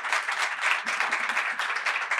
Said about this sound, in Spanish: Le damos un aplauso con mucho, mucho cariño.